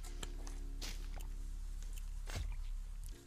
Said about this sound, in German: Ich muss mal kurz einen Schluss Wasser nehmen.